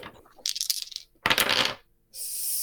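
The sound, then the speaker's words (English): Dice rattle and clatter across a hard surface in three quick bursts, a bright, clicking tumble each time, with short pauses between rolls, one roll coming up snake eyes. No one speaks. “The second one actually um, tries tries to hit you, um, and I rolled I rolled snake eyes, and ends up impaling its front claw uh, into the ground next to you.”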